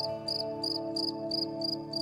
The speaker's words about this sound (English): certainly changed my perspective whenever I hear one, and especially when I'm going through something, and then God will have a cricket start chirping.